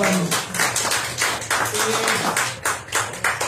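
A burst of applause from a small group, steady overlapping claps with a dense, bright texture that stays fairly loud throughout, with no voices heard over it.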